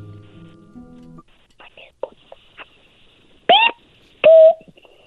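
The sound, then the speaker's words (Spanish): A child's voice imitates a chick with two loud, high, squeaky peeps in quick succession, after a stretch of faint breathy whispering and a brief low murmur at the start. “me han dicho que puedes hacerle como un pollito, ¿verdad?”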